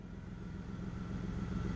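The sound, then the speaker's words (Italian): A jeep engine idles steadily at the side of a road on the steppe near Soltanie, with a low, rumbling drone and a faint harmonic hum, continuous, with no voices present. “Accosto al lato della strada, spengo il motore, salto giù dalla jeep.”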